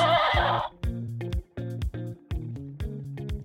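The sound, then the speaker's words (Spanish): A horse neighs loudly, opening with a rough, breathy blast before breaking into a long, quavering whinny that pulses in choppy bursts. No voices are heard. “en esta ocasión vamos a hablar de ladridos, maullidos y relinchos.”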